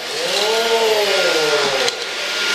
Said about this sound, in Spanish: No pasa nada, señora, señorita, porque usted tiene aquí esta aspiradora, esta aspiradora mágica, esta aspiradora de con alta tecnología.